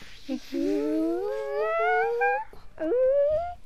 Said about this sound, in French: Le chasseur dit à sa flèche de ramener cette panthère. Voici le bruit de la flèche.